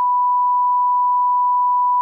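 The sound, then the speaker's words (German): A steady, pure censor bleep at a single mid-high pitch holds for about two seconds, loud and unwavering, with no voices underneath; it blanks out a spoken phone number. “Piept die dann aus, ja?”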